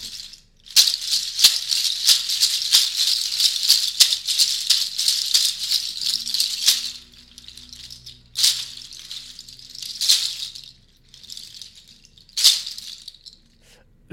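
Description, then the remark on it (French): A charchas rattle of sheep hooves shaken in a fast, steady clatter of dry, bright clicks, then slowing into a few separate louder shakes with pauses between, no voices. “Les, ongles, en l'occurrence, vous faites référence aux sabots des, des moutons. Sabots de moutons, oui. Et, et l'instrument s'appelle comment Les charchas.”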